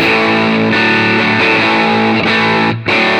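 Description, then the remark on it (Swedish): Distorted electric guitar chords played loud through an effects pedal, being tested, strummed and changed several times with a sustained, buzzing tone and a brief break near the end. No talking. “Vi Spela testar lite ackord då igen.”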